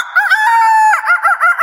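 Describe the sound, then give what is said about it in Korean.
A person imitates a rooster crowing, one loud drawn-out cock-a-doodle-doo with a sustained middle and a wavering, warbling finish, heard alone. “닭 울음소리로 아침을 여는 건 물론이고요.”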